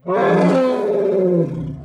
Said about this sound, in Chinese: 大象大叫一声，伸出鼻子卷向小鸡墩墩的手。